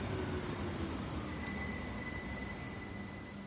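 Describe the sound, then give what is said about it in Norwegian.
A train rolls steadily along the rails, a continuous low rumble with a faint high metallic whine above it, with no one speaking. “Jeg satte meg på toget for å finne svar.”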